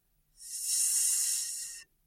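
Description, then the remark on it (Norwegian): A single drawn-out "sss" hiss voiced by a person instead of the word "sit", given as a sit command to a leashed dog while elk hunting. It is steady and fairly loud, lasting about a second and a half with no other sound. “S ja. som uh, suser i trærne, eller hva det nå vil.”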